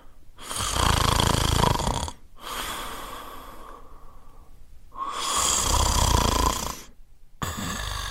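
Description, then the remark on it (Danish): Heavy, rumbling snoring, with three long loud inhalation snores separated by softer exhales and brief pauses, in a steady sleeping rhythm and no talking. “Ja, vi ligger ud med en god snorken. God, tung snorken, kan man vist godt sige.”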